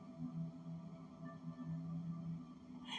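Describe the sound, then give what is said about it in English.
A steady, droning military-style alarm sounds continuously, a low humming tone with a thin higher whine layered above it, fairly quiet and unbroken for the whole stretch with no voices. “You know when you hear, you know, alarm go off due to like military style, like it's letting people know, okay, now it's time for us to go where, we need to go.”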